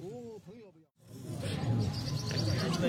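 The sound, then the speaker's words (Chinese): Birds in three cages set outside an upper-floor window of a residential building beside an antiques market chirp in short, high tweets scattered over a steady wash of market crowd noise, after a brief stretch of a man's voice at the start. “有听到鸟的声音吧？ 对，有鸟， 对 对，一呃那个地方有人 这种 养， 古玩一般不都跟花鸟鱼在一起？”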